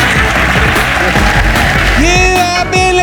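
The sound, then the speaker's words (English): An audience claps loudly and steadily throughout for guest Lucy Porter, a dense wash of applause, with a bright melodic tune rising over the clapping in the final second. “Uh, ladies and gentlemen, massive round of applause for my guest, Lucy Porter.”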